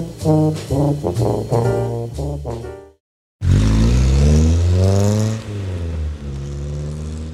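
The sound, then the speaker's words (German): A short stretch of music cuts to a moment of silence, then the engine of a black-and-white VW Beetle with an American number plate roars, revving loudly with rising pitch before easing into a steadier, lower drone. “in den Sommerferien hat mein Papa sein erstes Auto bekommen. Einen VW Käfer mit amerikanischem Nummernschild, schwarz-weiß, weil wir in der amerikanisch besetzten Zone wohnten.”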